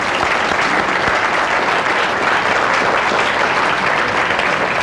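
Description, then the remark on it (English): Sustained applause from a sizable crowd, a steady dense patter of many hands clapping at once, loud, continuing evenly without pause or speech, given for Representative Villarreal and Senator-elect Campbell after their time on stage. “Let's give them a hand.”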